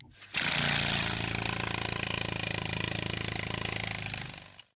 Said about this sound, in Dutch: Het is juist, het is een Herculeskever. Het is het grootste insect ter wereld.